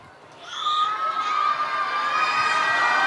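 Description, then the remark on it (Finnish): A crowd of children under 18 in an audience shouts loudly together on request, a sustained high-pitched roar that swells in after a brief moment and holds steady, with cheering voices blending. “Voisiko kaikki lapset, alle 18-vuotiaat huutaa kovaa ääneen?”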